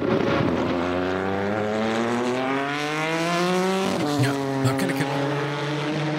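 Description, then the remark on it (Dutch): A 670-horsepower twin-turbo V6 race car engine revs up steadily, its harmonic whine rising in pitch for several seconds, then drops sharply as it shifts and climbs again, loud with no voices. “En die auto heeft een twin turbo V6 met 670 pk. Klinkt zo.”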